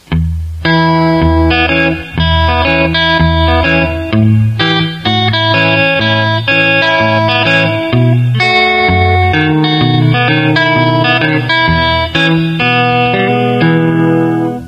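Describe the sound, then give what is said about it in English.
A guitar plays a slow chord exercise, strumming from E to A to B7 and back to E in a steady repeating cycle, high strings ringing clearly and low strings thumping, each chord ringing out loudly with a touch of reverb and no talking. “It's going from E quickly to A and then quickly to B seventh and back to E.”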